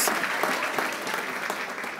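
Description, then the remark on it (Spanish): A crowd applauds steadily, many hands clapping in a dense, continuous patter at an even, fairly loud level throughout, giving a loud round of applause to the Lord. “Si hay dos o tres escondidos aquí, que le dé un aplauso fuerte al Señor.”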